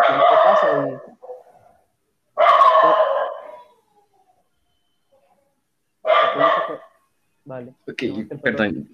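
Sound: dog barking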